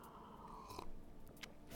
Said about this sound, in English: So, yes, let me take a sip from my cup of coffee.